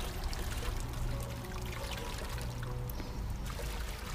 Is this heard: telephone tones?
no